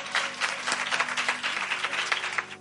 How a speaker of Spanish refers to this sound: Fuerte aplauso